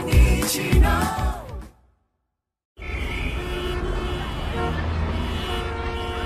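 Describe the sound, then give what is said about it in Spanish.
Car horns blare loudly over busy street noise, then a brief moment of silence gives way to a steady, dense rumble of passing road traffic. “Qué lindo sería un día sin el ruido del tránsito”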